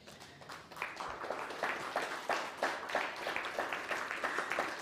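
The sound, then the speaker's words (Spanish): An audience breaks into applause, a dense patter of many hands clapping steadily for several seconds at a moderate level, with no one speaking over it. “Deseo un aplauso si siente usted un vacío.”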